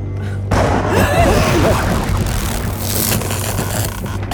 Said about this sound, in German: Oh, und wieder ein Kurzschluss.